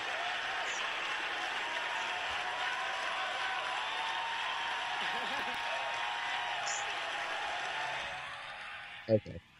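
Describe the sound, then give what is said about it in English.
Steady, dense audience applause after an applause line holds at an even level for about eight seconds, then thins out quickly, followed by a couple of soft thumps. “now the crushing part of that whole thing is, for me, unbelievable applause.”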